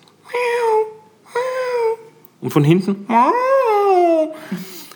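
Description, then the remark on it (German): A person imitates cats wailing in plastic carrier boxes in a car: several drawn-out, mournful yowls, fairly loud, the last ones longer and sliding in pitch, with a few brief spoken words in between. “Monsieur in seiner Box, so Plastikboxen, macht so das ist unglaublich, wie die klingen”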